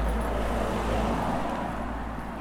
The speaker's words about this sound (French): Une voiture qui va nous croiser.